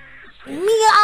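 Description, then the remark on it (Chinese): A single drawn-out meow voiced by a person, imitating a big blue cat that suddenly leaps out from the top of a wall in a story: a rising then falling tonal cry that swells louder toward the end, preceded by a brief quieter murmur. “喵！ 墙头上突然窜出一只大蓝猫。”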